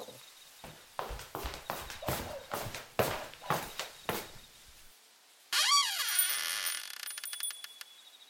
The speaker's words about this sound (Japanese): 今、何か音がしたような。気のせいじゃないあ、やっぱり、誰かノックしてる。